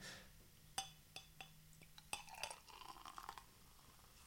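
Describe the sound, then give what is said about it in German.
Champagne poured into a glass: a few sharp glassy clinks, then a short burst of fizzing, bubbly pouring that trails off. No one speaks. “Ich schenke dir das gerne live ein.”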